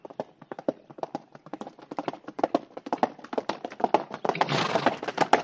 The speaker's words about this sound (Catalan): Corre, cavall, corre!